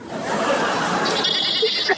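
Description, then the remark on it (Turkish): A goat bleats, played from a YouTube video, in a long, continuous wavering cry that stays loud and steady for about two seconds, ending with a short higher-pitched catch. “Bunlar keçi sesi istiyorum sadece.”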